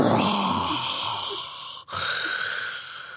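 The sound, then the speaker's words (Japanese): A voice imitates snoring with two long, raspy, rattling breaths. The first drones for nearly two seconds, then a brief pause, and a second loud, gravelly snore follows. “あるよね、でもこんないびきね。”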